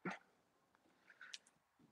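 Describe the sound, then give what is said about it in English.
A female dog gives one short, sharp bark right at the start, followed by a few faint, high yips or whines about a second later, with no talking. “Let me get this damn dog right, cause she about to piss me off.”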